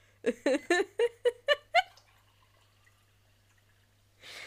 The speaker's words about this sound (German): diesen wunderbaren Sound von Wasser in leeres, jetzt volles Glas. Definitiv.